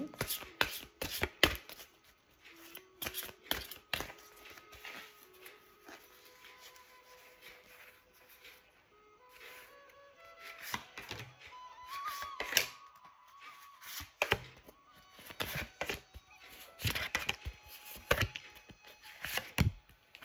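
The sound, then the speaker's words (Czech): Playing cards being shuffled during an annual card reading, in irregular bursts of crisp, papery clicks and slaps, pausing briefly before starting again, with a faint, sustained tone drifting upward in pitch beneath the shuffling. “A já už se dívám na vaši fotku, míchám u toho karty a my se spolu podíváme, jaká bude energie v roce 2023 plus leden 2024.”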